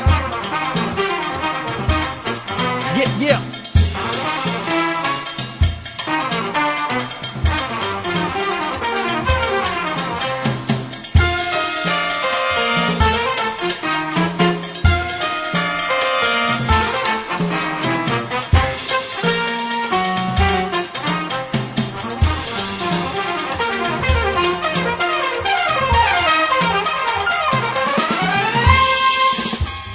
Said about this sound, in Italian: Yeah, che bomba, dovevamo sentirlo quel pezzo. Bombissimo. Sì, è figo. Eh, abbiamo passato questa canzone molto teatrale, molto orchestra, perché il nostro film è pieno di sorprese